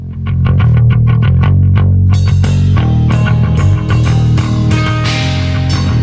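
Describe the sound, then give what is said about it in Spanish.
A loud alternative rock song by an American band founded in 1987 in Seattle, with heavily distorted guitars, opening on a pulsing riff before the full band crashes in around two seconds with dense, driving cymbals. No voices are heard. “una banda de rock alternativa ¿no? estadounidense fundada en el 87 en la ciudad de Seattle”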